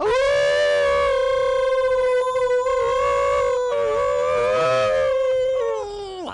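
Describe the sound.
Human voices imitate a dog's howl in a contest over who can hold the howl longest, holding one loud, sustained wavering tone for about six seconds, with a second voice overlapping and bending the pitch before both trail off.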